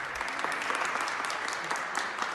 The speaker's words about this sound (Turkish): Ankara'da Covid-19 testi pozitif çıkan 80 ve 89 yaşlarındaki çift 13 günlük tedavinin ardından taburcu edildi. Koronavirüs yenen yaşlı karı kocayı sağlık personeli alkışlarla uğurladı.